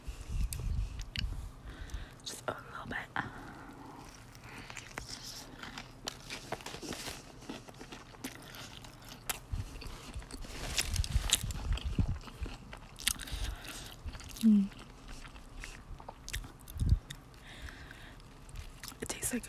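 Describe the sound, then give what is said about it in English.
Wet, crunchy biting and steady chewing of a chicken sandwich, with irregular crackly bursts and soft smacking sounds over about twenty seconds, moderately loud throughout. “good sandwich, a good chicken sandwich.”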